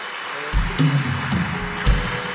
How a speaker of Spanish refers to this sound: Los que lo crean, denle un aplauso a Dios.